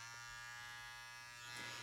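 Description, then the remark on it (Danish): A Manscaped The Lawn Mower electric body hair trimmer, part of the Performance Package 4.0, runs with a steady, high-pitched motor buzz that holds constant for about two seconds, alone, with no talking. “Øh, det her, det er lyden af The Lawn Mower, som er en del af Manscapes Performance Package 4.0.”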